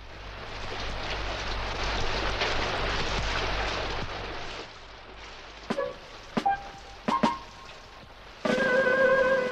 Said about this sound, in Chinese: 这一天，外面在下着雨。安娜说：“ 嗯，外面还在下雨呢，伙伴们，我们没法出去玩了。”